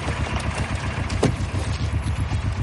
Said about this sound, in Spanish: Te aconsejo que arregles esa mierda de tubo de escape.